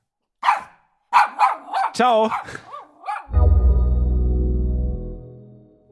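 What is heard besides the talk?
dog barking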